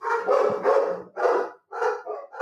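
dog barking

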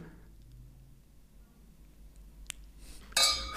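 wine glasses clinking

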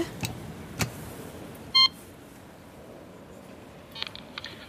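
ringing a doorbell

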